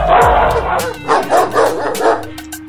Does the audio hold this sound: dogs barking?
yes